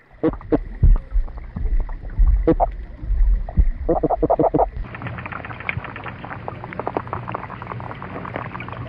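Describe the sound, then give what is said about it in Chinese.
Low, irregular underwater thumps and grunting pulses from fish, made by swim bladder vibration or pectoral fin spines, with a steady watery hiss; about halfway through, a dense crackle of rapid clicks takes over. “我们接下来听一下我们熟悉的鱼类的声音。”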